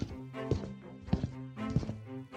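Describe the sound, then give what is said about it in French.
Slow, heavy footsteps thud up wooden stairs, three or four evenly spaced steps, while the boards creak and groan under the climber's weight between them. “Les marches grincent déjà sous son poids.”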